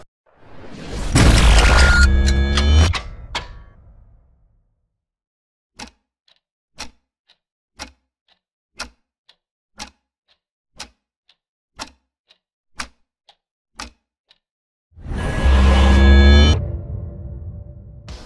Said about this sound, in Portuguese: é meio que um aquele né, poderzinho do Jojo do de que faz o, somzinho do relógio, sabe? O tum, tum, tum. Eu vou, tentar, vou, deixar o som aqui se eu conseguir achar ele.